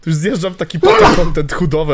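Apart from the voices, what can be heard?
sneeze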